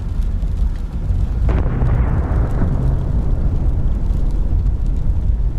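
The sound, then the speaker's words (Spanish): A heavy explosion booms out with a sudden crack, then a deep, sustained rumble rolls on for several seconds, loud and low, with no voices. “explosión?”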